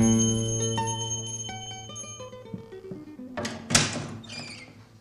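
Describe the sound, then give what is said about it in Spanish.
A doorbell chime rings out as someone calls at a door, with sustained, ringing tones that slowly fade, followed by a door being opened with a brief clatter near the end. No voices are heard. “Cuando llamé a la puerta, el corazón me latía de una manera especial.”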